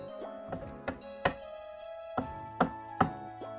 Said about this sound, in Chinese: 一大早，我正睡得迷迷糊糊，突然听到敲门声，